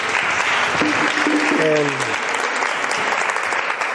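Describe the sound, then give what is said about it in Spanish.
Sustained audience applause for a speaker about to give a talk on illness, a dense, steady wash of many hands clapping that fills the whole clip, with a brief voice rising faintly through it partway in. “Bueno, un aplauso.”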